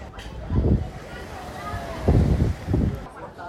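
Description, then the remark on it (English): A gentle sea breeze rumbles softly across the microphone in three low gusts on a small promenade by restaurants in Calella de Palafrugell on the Costa Brava, with faint, indistinct voices of people milling around. “Just above the little restaurants are these whitewashed apartments with their yellow awnings fluttering in the lovely gentle sea breeze.”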